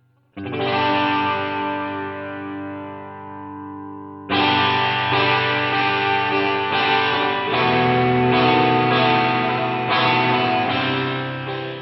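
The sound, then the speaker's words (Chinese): A rhythm electric guitar with a Marshall amp overdrive tone, drenched in a spring reverb effect, lets one chord ring out and decay, then strums a steady run of repeated chords, their tails blurring into a thick, washy haze. “我个人呢比较喜欢用这个弹簧混响，咱们给它加上试一下。”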